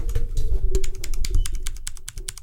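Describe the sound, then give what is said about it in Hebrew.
Rapid, crisp clacking of the keys of a mechanical gaming keyboard with a numpad, volume roller and lighting, a dense run of sharp clicks with a faint steady hum underneath and no voices. “ואתה יודע, מקשים, יש להם את הצליל, חקיבות...”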